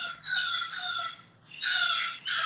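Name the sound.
bird calling outside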